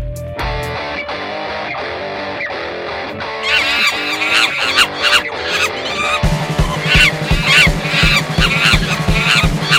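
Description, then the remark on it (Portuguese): The intro jingle of the Brazilian show Macaco Aranha: a loud, busy jingle with honking, squawking sound effects over music, which grows fuller midway and then settles into a steady, pulsing low beat for the last few seconds. No one speaks. “Vamos falar sobre dicas de podcast. Logo depois da vinheta.”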